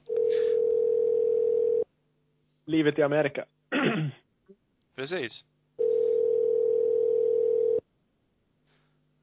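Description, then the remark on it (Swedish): Two long, steady ringback tones of an outgoing phone call to somewhere far away, each about two seconds, separated by a pause in which a voice briefly speaks and clears its throat. “Nu ringer vi någon annanstans, det hör vi.”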